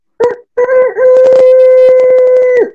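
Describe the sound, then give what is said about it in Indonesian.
A person mimics a rooster's crow: a short voiced yelp, a brief pause, then a long, loud, sustained wavering call held for about two seconds before trailing off. “suara apa itu ayam jantan itu kokok gitu”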